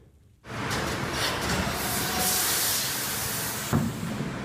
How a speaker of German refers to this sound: Eine Spritzgussmaschine kann pro Tag mehrere tausend Kunststoffteile herstellen. Damit das möglichst fehlerfrei und ohne längere Standzeiten funktioniert, ist so eine Maschine mit vielen Sensoren ausgestattet.